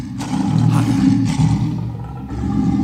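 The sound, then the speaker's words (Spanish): A deep, sustained lion-like roar rumbles loudly for about three seconds, heavy in the low range with rough, growling texture and slight swells in intensity, with no voices. “¿Sí entendió lo que está diciendo la Biblia? Meditar significa rugir.”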